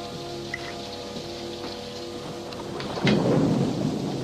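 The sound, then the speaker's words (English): Steady rain hisses throughout a thunderstorm, and about three seconds in a loud, deep roll of thunder surges up and rumbles on to the end. No one speaks. “Just a couple of strangers got caught out in the rain.”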